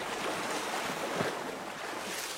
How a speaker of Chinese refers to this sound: 台北的淡水河，波光粼粼，月黑风起，一男子衣衫破破，全身带血，在河边迟迟的望着月色笼罩的水面，满脸带泪的看着川流不息的河水，点点泪珠与泛起的层层波光相映，倍感伤然。